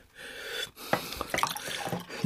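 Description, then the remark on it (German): Water runs from a tap into a glass for a couple of seconds, a steady splashing pour with small drips and clinks, and no voices. “Puh, ich brauche ein Glas Wasser.”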